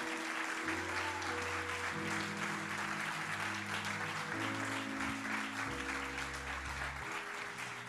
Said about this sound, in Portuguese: Dê um aplauso bem forte ao Rei da Glória, irmão. Ah, vamos lá, igreja! Uh!